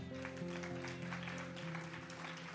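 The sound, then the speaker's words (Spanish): An audience applauds the Lord, clapping steadily in a dense, continuous patter, with sustained low keyboard tones humming underneath throughout. “Alguien que lo, si usted lo cree, tiene que darle un mejor aplauso al Señor.”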